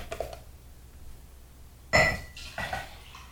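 Someone prepares a glass of hydrogen water: a sharp ringing clink of glass near the middle, followed by a softer knock and some handling noise, with no talking.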